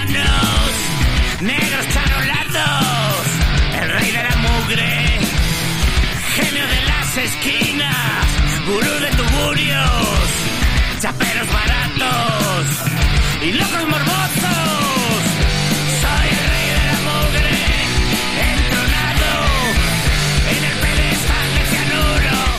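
A loud, raw punk rock song by a pioneering Spanish punk band plays throughout, with gritty shouted vocals over distorted guitars and pounding drums at a steady, driving tempo.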